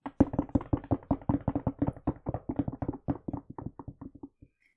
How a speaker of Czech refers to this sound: Teďka bychom mohli zatleskat, ale myslím, že v Německu se místo toho ťuká.